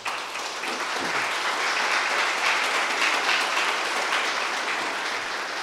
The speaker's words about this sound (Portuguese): É bonito isso, não é? Então vamos aplaudir a Jesus bem forte.